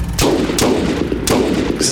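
Four loud pistol gunshots crack out at uneven intervals, each a sharp, bright burst that rings briefly before the next, with no voices present.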